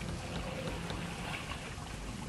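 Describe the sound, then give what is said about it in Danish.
Steady, dense wash of water and wind noise around a large ancient wooden warship, with faint creaks of its timber and rhythmic splashes as oarsmen row in coordinated strokes and the sail catches the wind; no voices, continuous and fairly loud throughout. “Et stort krigsskib fra langt før vores tidsregning. Træet knirker. Årmændene ror med en koordineret bevægelse.”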